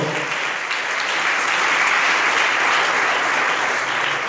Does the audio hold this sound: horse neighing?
no